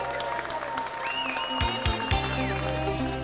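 A crowd cheers and applauds in a steady, dense wash of clapping, with high whistles rising above the noise for a few seconds. It sounds full, with no clear speech.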